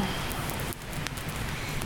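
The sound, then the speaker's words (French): Steady rain patters on the taut canvas or hide surface of a tipi overhead, a dense, even drumming with scattered sharper drops, continuous, with no voices. “Nous sommes sous un tipi, encore, comme avec Guillaume l'autre fois, il y a de la pluie”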